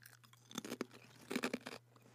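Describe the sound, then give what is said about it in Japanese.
Crisp potato chips being crunched while eating, in two short bursts of dry, crackly bites with brief pauses between them, and a faint steady hum beneath. “これはねポテトチップスにこんなこと言っちゃいけないかもしれませんけども、うんはい、ジューシーですジューシーです。”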